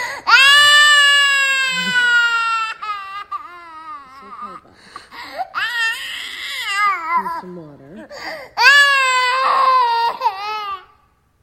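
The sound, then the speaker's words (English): A toddler boy wails in long, high-pitched bursts after being told there is no more chocolate, breaking into sobbing whimpers between cries, while an adult speaks softly and briefly in the middle before the loud crying resumes; filmed on a phone. “So much so that when she told him there was no more, she grabbed her phone and videoed his reaction.”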